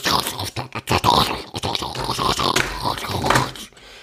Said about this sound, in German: Ich schwöre dir, die Nachbarin steht da oben, nimmt einfach nur einen Stuhl und reibt einfach die ganze Zeit so von oben nach unten. Die ganze Zeit. Sie macht nichts anderes.